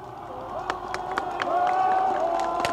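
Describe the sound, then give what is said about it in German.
A crowd of demonstrators at the Brandenburg Gate in Berlin claps in scattered, irregular bursts and waves their hats as the red flag is taken down, while a swell of voices cheers and calls out "we greet free Berlin", growing louder partway through. “Die Demonstranten klatschen, sie schwenken ihre Hüte.”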